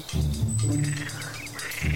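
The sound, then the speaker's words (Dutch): A frog croaks in low, buzzing pulses, one long rattling stretch followed by a brief pause and another croak starting at the end, with a thin high whistle faintly above. “Oh, die kikker”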